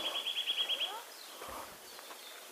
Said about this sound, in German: Wir hatten gedacht, hier mal ein bisschen zur Ruhe zu kommen, aber wieder diese verdammten Spechte hier. Tackern die ganze Zeit an den Stamm.